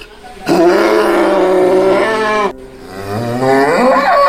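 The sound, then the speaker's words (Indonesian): A cow in a field moos loudly, two long drawn-out bellows, the second rising in pitch, with no talking over them; the cow has just been untied from its stake and is jumping and struggling. “Dia melompat-lompat dan memberontak sambil mengeluarkan suara.”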